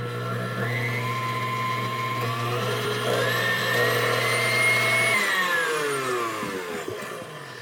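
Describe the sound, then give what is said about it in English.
A stand mixer motor whirs steadily as it kneads a dough made with salt, water and lard, its whine rising slightly in pitch midway, then shifting to a rougher, lower churning for the last couple of seconds. No one speaks. “And this will go into my mixer.”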